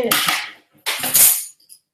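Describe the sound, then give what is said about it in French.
A pen drops and clatters on a hard floor, two bright, rattling bursts of clicks and skittering about a second apart, ending with a small final tick. “J'ai fait tomber mon stylo.”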